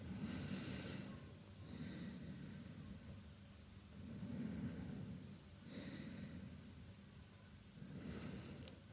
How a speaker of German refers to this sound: und spür einmal die Luft, die durch deinen Hals ein- und ausströmt. kannst das vielleicht auch hören mit so einem Geräusch, so einem Rauschen durch den Hals.